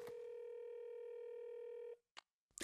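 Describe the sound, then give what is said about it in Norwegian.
A telephone ringing tone on an outgoing call: one long, steady electronic tone lasting about two seconds, then a brief click and a short burst of noise as the line picks up. “Det ringer.”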